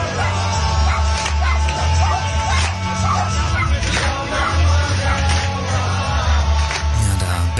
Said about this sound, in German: bellen sogar die Hunde mit, ne?